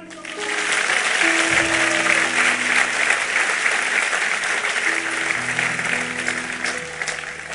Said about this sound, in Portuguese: Amém, amados? Vamos aplaudir a Ele?